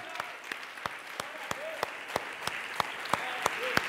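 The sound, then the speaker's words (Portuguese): An audience at a church service applauds to glorify God, sharp claps landing in a steady, even rhythm about three per second over a continuous wash of crowd noise, with voices calling out now and then. “crê nisso, aplauda Ele, glorifica o nome do Senhor, aleluia!”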